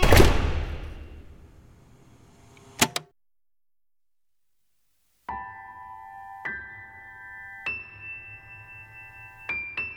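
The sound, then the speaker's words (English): A heavy door rumbles closed and slams shut with a sharp, loud bang, followed by dead silence, then a series of steady electronic lockdown alarm tones sounding in stepped bursts. “It's the lockdown alarm. Petra, hurry and get in here. The door's gonna slam”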